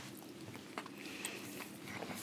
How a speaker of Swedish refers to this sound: Förlåt, jag bara tuggar och äter bulle mm. samtidigt.